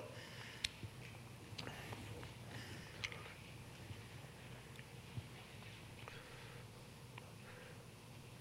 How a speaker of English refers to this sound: Don't you love that sound of pages turning in Bibles? You can't get that with your iPhone or tablet, can you?